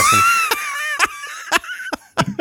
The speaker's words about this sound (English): Yeah, now that Godzilla roar right there is like I don't it's so iconic. It's so great. I love I that love sound.